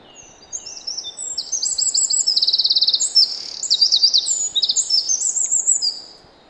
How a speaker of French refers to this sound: Il y a même un roitelet, euh, triple bandeau. Voilà, ça, vous l'avez entendu ce petit truc là, tout petit Ça c'est le roitelet Roitelet triple bandeau.